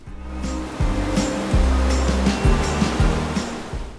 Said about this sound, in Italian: Tutti mangiano sotto i portici, ma fuori c'è un bel sole, si sentono le onde che sbattono contro gli scogli ed esco per vedere le otarie.